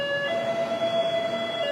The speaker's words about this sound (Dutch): Wacht, dit is een ambulance die passeert.